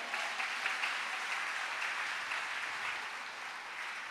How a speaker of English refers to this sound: Oh, clap your hands if you believe that.